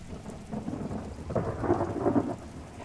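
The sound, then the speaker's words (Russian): A thunderstorm over the steppe at dusk rumbles with a low, rolling swell of distant thunder from low, heavy clouds over steady rain, growing louder midway before easing slightly; no voices are heard. “Несколько дождевых капель упало на руки, и рудокоп поднял голову.”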